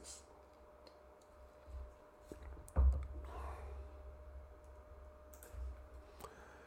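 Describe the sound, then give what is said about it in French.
Someone quietly takes a sip of water: soft clicks and handling noises, a brief swallow near the middle, then a faint exhale, with no talking. “Je vais prendre une gorgée d'eau, puis on va passer au point 10.”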